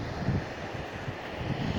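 Steady outdoor noise at Poetto beach in Cagliari, Italy, on Ferragosto, with wind buffeting the microphone and a low, rolling rumble like surf, a continuous wash of sound with no voices.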